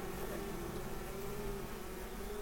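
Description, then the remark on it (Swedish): A steady, continuous hum of honeybees buzzing at an open hive, a low droning tone with a soft hiss above it, holding evenly throughout with no voices. “men den är, den är, det här är en ung drönare som är helt vilsen.”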